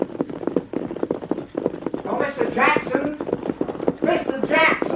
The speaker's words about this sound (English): I was riding back to my ranch when I heard hoofbeats coming along the trail behind me.